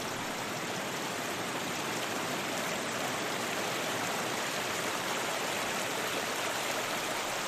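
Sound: river water flowing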